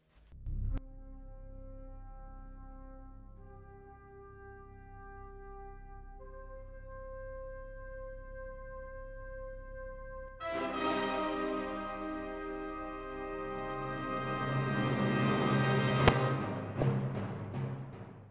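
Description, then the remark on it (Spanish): A famous orchestral theme, known from the film 2001: A Space Odyssey, opens on a deep sustained drone with held brass notes climbing step by step, then the full orchestra bursts in and swells to a loud climax ending in sharp, punchy hits. “¿Cuántas veces habremos escuchado esta sintonía sin saber realmente qué, quién, por quién ha sido compuesta o qué, o qué obra es, ¿no?”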